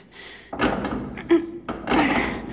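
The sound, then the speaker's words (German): A heavy door at the end of a corridor thuds several times, each dull, loud knock followed by a short rumbling scrape, with no voices. “Das ist eine Tür.”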